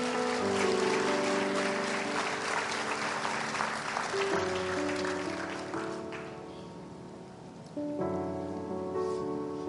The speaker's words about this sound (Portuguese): Eu posso ouvir uma salva de palmas para Jesus?